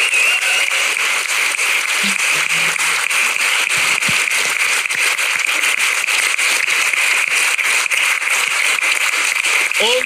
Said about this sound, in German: Und jetzt könnt ihr mal noch klatschen, das ist auch gut, gell?